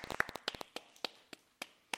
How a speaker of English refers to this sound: a smattering of applause for you.